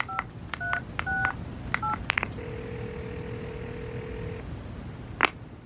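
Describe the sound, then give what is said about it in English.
A quick run of touch-tone beeps from a phone keypad as a call is placed, followed by a steady ringing tone held for about two seconds, then a short click, all over a faint background hum. “Yeah, let, let, me give her a call.”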